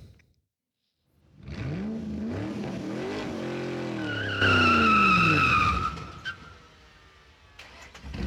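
A car pulls away with a loud, rising engine rev and a sustained high-pitched tire squeal lasting a couple of seconds, then the noise fades as it drives off.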